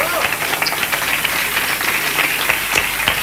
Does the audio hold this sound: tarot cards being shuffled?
no